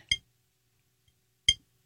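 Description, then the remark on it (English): Two crisp, bright taps of fingernails on glass, made for ASMR, spaced well over a second apart. Each is a short clicky ring with near silence between them. “I've got nails. Give it. Oh yeah, just tap. All right, give it. Tap the glass.”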